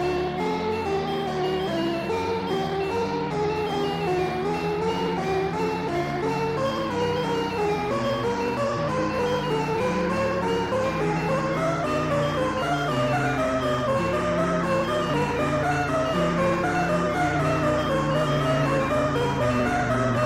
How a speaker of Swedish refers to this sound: Um, ehm, ja, jag kommer slänga in faktiskt, det kan bli ett klippe kanske, bara för att visa de två akterna i låten. Men jag ska definitivt eh, klippa in musiken här.